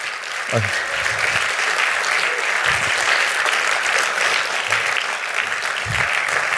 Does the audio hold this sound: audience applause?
yes